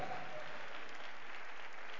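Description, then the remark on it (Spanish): A crowd claps steadily as praise to God, a dense wash of overlapping hand claps holding a fairly even, strong level for the full two seconds with no voices breaking through. “¿Cuánto dan un aplauso, alabanza grande al Dios Todopoderoso?”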